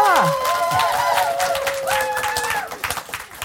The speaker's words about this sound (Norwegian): ja, det var veldig bra klapping. Ja, det var veldig bra.